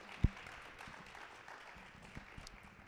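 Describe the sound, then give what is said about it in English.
An audience applauds steadily, a soft, dense patter of many hands clapping, with one sharper clap right at the start and no voices. “Let's give everybody a big round of applause, ladies and gentlemen.”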